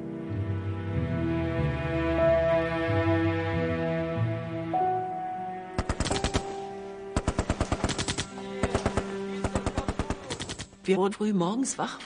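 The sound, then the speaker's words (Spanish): Sustained, swelling music plays alone at first, then sharp bursts of rapid machine gun fire break in, loud, crackling in repeated clusters over the continuing music; the shots are fired very early in the morning in Neuendorf as a salute marking the end of the war. “Nos despertamos muy temprano porque escuchamos tiros.”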